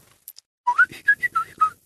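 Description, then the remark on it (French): A bright, electronic-sounding bird-chirp phone ringtone: a quick run of about six high, warbling tweets in a lively rhythm, clear, with no one talking. “Euh, euh, la sonnerie des petits oiseaux.”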